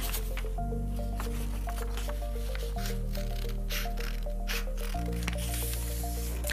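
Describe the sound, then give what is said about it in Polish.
Soft papery rustles and crinkles come in several short bursts as a sheet of paper from a drawing pad is folded, to later be cut into a square. The sound is quiet, over a steady bed of sustained background music. “Teraz zaczynamy tą kartkę bloku rysunkowego. Składamy”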